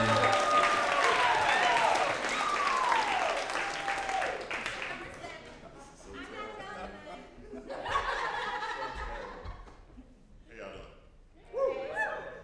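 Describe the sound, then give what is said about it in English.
An audience claps loudly in a dense, steady roar of applause, with a few sliding whoops, as a speaker climbs the stairs onto the stage; then the clapping fades into scattered voices and bursts of laughter. “Keep on clapping, he's almost here.”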